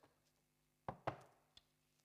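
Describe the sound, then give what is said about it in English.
Two quick, soft knocks on a front door in close succession, the way children start knocking to be let in, followed by a fainter tap, with quiet room tone around them and no talking. “And what do you do with a shut door if you want it open? Yeah, you knock on it.”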